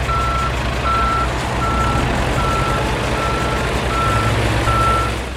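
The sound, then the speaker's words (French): A heavy diesel engine rumbles steadily while a reversing alarm beeps in a regular rhythm, seven evenly spaced high-pitched beeps, from a bulldozer backing up while clearing the Amazon rainforest. “Pour vous montrer que j'ai quand même des convictions, je dirais que c'est le bruit d'un bulldozer qui est en train de massacrer la forêt amazonienne.”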